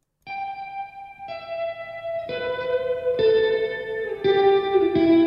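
A rock song's instrumental intro played on Radio Popolare: sustained, effects-laden guitar chords shift step by step about once a second, building steadily in loudness with no voices.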